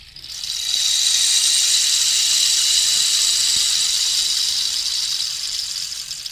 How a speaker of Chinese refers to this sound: 像刚刚你听到像雨声，那是一个雨声筒，那雨声筒声音。